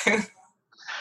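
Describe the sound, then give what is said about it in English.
A single abrupt sneeze bursts out loudly, then fades into a short silence before a softer breathy rustle follows. “So, oh, bless you, yeah.”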